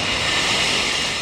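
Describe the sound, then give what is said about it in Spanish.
Street glass recycling collection: a loud, steady, hissing mechanical roar that holds constant throughout, with no distinct crashes or voices standing out. “perdón por el ruido, estoy aquí en la calle y están recogiendo el vidrio.”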